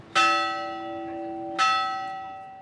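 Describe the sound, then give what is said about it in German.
A small chapel bell on the rocky Basque island of Gastelugatche, Spain, is struck twice, each clear metallic clang ringing out and slowly decaying, with a short pause between strikes and no voices. “Wer an der Glocke der kleinen Kapelle dreimal läutet, darf sich etwas wünschen, außerdem werden böse Geister vertrieben, so eine Sage.”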